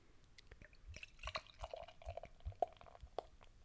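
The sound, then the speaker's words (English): Beer glugs from an opaque gray bottle into a glass, building a lot of foamy head, with irregular gurgling pulses and a fizzy, dripping patter underneath; quiet and steady, no voices. “Ooh, that's some good glugging.”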